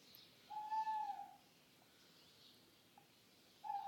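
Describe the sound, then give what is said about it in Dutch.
A tawny owl, calling for several days in a city centre, hoots over a quiet, hissy background: one drawn-out, slightly wavering hoot, a short faint note, then another hoot starting at the end, with no one talking. “Dat is een bosuil. Die roept nu al een paar dagen.”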